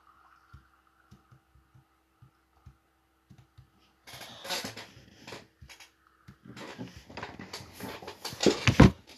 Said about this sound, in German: So, sorry für die Geräusche gerade. Ich bin an meinen Tisch gestoßen gerade.